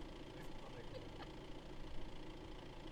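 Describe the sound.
A car engine idles with a steady, low rumble that holds at an even level throughout, with faint voices murmuring in the background.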